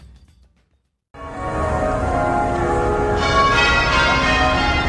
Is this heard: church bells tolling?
yes